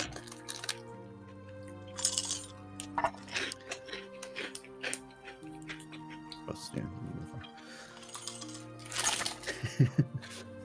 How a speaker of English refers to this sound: I bear in mind, like four sounds like a low number, but bear in mind you're rolling six dice and then there's a chance for a bonus.